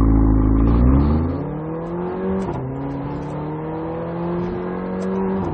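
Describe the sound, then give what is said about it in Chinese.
The 2.0-litre turbocharged engine of a Mercedes-AMG CLA 45, driven in S mode, climbs steadily in pitch under hard acceleration, dips sharply at a gear change, then pulls up again, with short crackling exhaust pops around the shift. No voices. “可以听到这台车在每一次换挡的时候呢，就有一点跟超跑那种感觉的是放炮的这么一个味道。”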